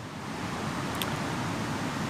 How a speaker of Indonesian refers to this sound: gua pas nyampe pantai nyampe sini dengar ombak nggak tahu kenapa gua kayaknya rasanya pengen tinggal di sekitar pantai aja